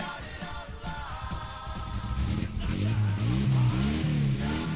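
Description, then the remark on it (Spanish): A car engine turns over and catches, then revs up loudly with rising, throaty pitch, sounding alone. “arranca. Arranca como American Village Automotores.”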